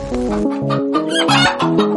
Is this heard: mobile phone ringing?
no